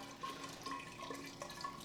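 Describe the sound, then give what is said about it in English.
Water swirls and churns steadily through a vortex device, a continuous rushing gurgle with faint bubbling, moderately quiet, with no talking. “Um, and so this is what the, this vortex is doing. It's removing the, the negative memory of water.”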